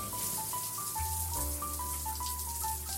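Steady hiss of ordinary water falling from a bathroom shower, spraying and splashing continuously, with a soft melodic music bed of sustained tones playing underneath throughout.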